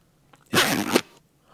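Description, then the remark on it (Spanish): The zipper of a bag full of cables, 15 or more years old, is pulled beside a microphone; it rasps once in a quick, loud pull lasting about half a second, with near silence on either side and no voices. “sí, Así póntelo ahí al lado del micrófono de la cremallera y ábrela y ciérrala para todos nuestros oyentes.”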